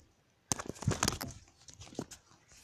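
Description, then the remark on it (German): A mobile phone drops and clatters: a sharp knock, then a quick run of rattling bumps and scrapes as it settles, with no voices. “Mist, mein Handy ist mir gerade runtergefallen, sorry.”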